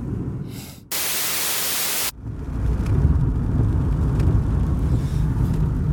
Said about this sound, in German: Das ist übrigens Regen. Ihr hättet mich gestern fragen können, ob es heute regnet.